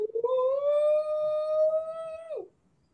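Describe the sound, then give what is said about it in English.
A single voice lets out a loud, drawn-out Arkansas hog call: a rising "woo" held steady for about two seconds, then sliding down and cutting off, with no other talk. “Pig sooie, something like that, right?”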